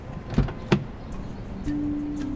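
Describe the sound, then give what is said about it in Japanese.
Two sharp metallic clicks close together, like a car door latch releasing as a salesman opens the door of a new Toyota Corona, followed by a steady low mechanical hum. No one speaks. “販売員はコロナのドアを開ける。”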